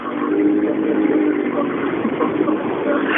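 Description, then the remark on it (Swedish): Anders Åberg's rally car idles with a steady, rumbling drone and a faint harmonic hum, holding an even loudness for the whole few seconds with no talking over it. “Ja, nej, det är många bilar som är, som är snyggt stripade där ute bilen.”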